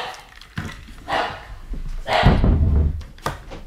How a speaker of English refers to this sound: The dogs. The dogs are barking. no. I'm so I'm so sorry. Our oh. our uh, oh, no, dog went wild.